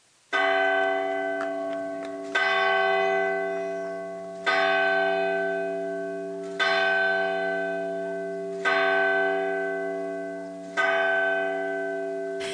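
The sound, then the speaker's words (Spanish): A church bell in Colombia tolls six times at a slow, steady pace, rung in celebration of the signing of peace, each loud, resonant strike ringing on and fading before the next. No voices are heard. “Y esto fue una celebración, la cosa más impresionante, en todos los municipios, los mil y pico de municipios de, de Colombia, Sonaron las campanas todas al mismo tiempo que parecía que no fueran a parar.”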